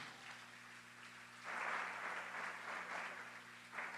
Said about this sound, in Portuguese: Dá um aplauso forte, Senhor.